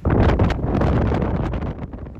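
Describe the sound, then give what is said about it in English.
Strong wind gusts roar and buffet the microphone at a house on five acres along the Rocky Mountain Front, a loud, low rumble with shifting surges and no voices. “The wind, it sometimes gusts at hurricane forces.”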